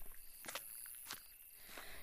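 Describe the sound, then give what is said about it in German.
A few soft, evenly spaced footsteps on a hard surface, fairly faint, slowly moving away as people walk off, with steady background hiss and no talking. “Ihr Kichern, die Musik aus dem Handy und die Geräusche der Schritte entfernen sich langsam.”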